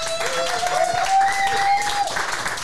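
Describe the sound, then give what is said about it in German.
An audience in the Briencic shop applauds steadily for a few seconds, a dense wash of clapping with a thin, sustained whistle-like tone sliding through the middle. “Zum einen haben wir heute hier im Laden Briencic erstmal einen riesengroßen Applaus.”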